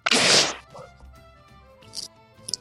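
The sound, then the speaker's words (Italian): A single sharp, loud sneeze bursts out at the start, a harsh noisy blast lasting about half a second, followed by quiet with a couple of faint breathy sniffs. “Salute.”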